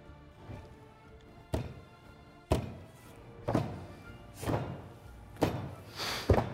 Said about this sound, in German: beginnen die Speere auf den Boden zu schlagen. Es wird immer lauter. Keine Rufe mehr.